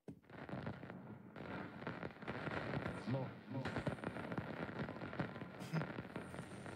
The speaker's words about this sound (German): Also man merkt, dass ich will da irgendwas einstellen und es funktioniert nicht. Man hört nur so ein Rauschen.